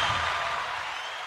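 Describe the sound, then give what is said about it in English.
A short burst of dense applause, many hands clapping at once in a steady, crackling wash that holds at an even level with no voices over it. “Round of applause for my supporters again.”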